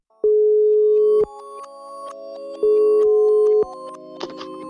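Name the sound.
telephone ringing tone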